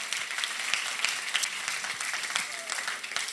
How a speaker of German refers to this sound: Hey, vielleicht können wir uns nochmal zusammen alle einen riesen Applaus geben, uns gegenseitig begrüßen. Mega, dass ihr da seid, mit dabei seid.